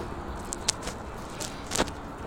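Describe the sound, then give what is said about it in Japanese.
Steady low rumble of car noise fills the background, with a few brief clicks and rattles cutting through, no one speaking. “車の音がうるさい”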